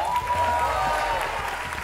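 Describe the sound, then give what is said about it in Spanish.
An audience claps steadily, a dense wash of many hands at a fairly loud, even level throughout, with a faint crowd murmur underneath. “Así que un aplauso para Ricardo Peralta.”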